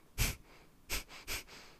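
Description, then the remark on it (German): Three short, sharp puffs of air blown out through the nose, fairly soft: one on its own, then two more in quick succession, like a stifled laugh. “Ja, ja, mit der, mit der Nase so kurz atmen, als würde ich so, so kurz ausschnauben, als würde ich lachen.”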